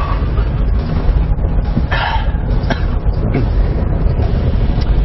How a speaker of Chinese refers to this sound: 啊，当爬坡的时候，你能觉得这2.7升发动机底气是不足，越到上边，你看干踩不走。